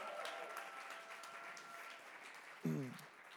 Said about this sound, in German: Auch die Leute, den Leuten geben wir auch nochmal einen Applaus, okay?